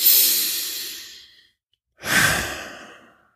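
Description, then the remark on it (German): A long, deep breath drawn into the belly, a short pause, then a full, audible exhale like a sigh. No one speaks. “Mal schön in den Bauch atmen, richtig fest.”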